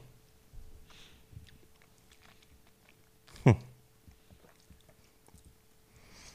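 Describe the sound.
Wet smacking and chewing noises made into a microphone, with scattered soft mouth clicks and one loud, sharp smack about halfway through; a brief murmured hum from a voice.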